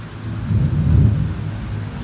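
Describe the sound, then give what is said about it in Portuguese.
Steady rain hisses throughout while a deep, rolling rumble of thunder swells in the middle and slowly fades. No voices, just the storm at a moderate, even level. “antes de uma nova ofensiva, vieram as chuvas, que impediam novos avanços, e a linha se manteve estável.”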